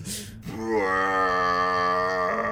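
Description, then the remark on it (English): A voice imitates the low tones of a record needle scraping across a record, as a mixer picked them up: a brief breathy burst, then a steady droning hum held for about two seconds before tapering off. “So whatever um, mixer was interpreting the scraping of the needle across that record as violently as they did it was only picking up the low tones.”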